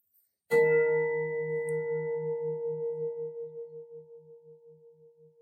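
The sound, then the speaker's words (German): A single large gong is struck once and rings out alone, its deep tone pulsing with a slow wavering beat as it gradually fades over several seconds. “Mit dem nächsten großen Gong verwebe ich meine Lebensfreude mit meiner Dankbarkeit in jede Zelle meines Körpers, in jede Faser meines Seins.”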